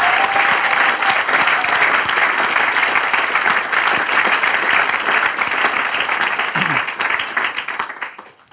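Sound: strong audience applause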